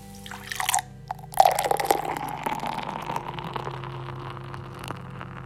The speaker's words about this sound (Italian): Stiamo bevendo acqua, questo tipico suono sì, Sì, senti, senti l'acqua.